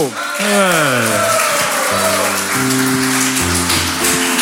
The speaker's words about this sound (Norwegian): Sjur, en liten vignett og en stor applaus til Francesco!